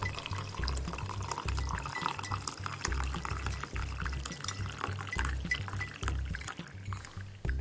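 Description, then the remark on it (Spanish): Coffee pours into a cup in a steady, splashy stream lasting several seconds, with a soft low thumping pulse running beneath it and no talking. “¿Un café?”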